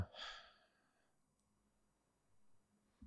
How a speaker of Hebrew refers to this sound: אז בעצם שאפתי שלוש, עצרתי את הנשימה שלוש, נשפתי שלוש, עצרתי את הנשימה שלוש וכן הלאה.